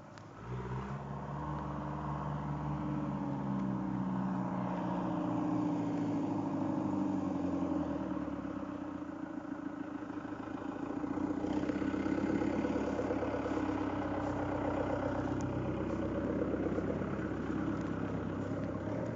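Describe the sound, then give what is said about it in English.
A heavy tractor engine, driven by Farmer Radar as it approaches, rumbles steadily, its low throbbing idle shifting in pitch as it revs slightly, continuous for the whole stretch with no voices. “Oh, and here he comes in his tractor.”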